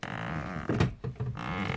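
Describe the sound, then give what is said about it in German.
A swing creaks as the person on it twists back toward the frame holding it, a drawn-out, wavering groan with a brief sharper squeak in the middle, moderately loud, with no talking over it. “Ich drehe mich, also dreh mich in der Schaukel jetzt zurück zu dem Ding, das die Schaukel hält. Und jetzt äh, mache ich mal wieder so, dass es knarzt.”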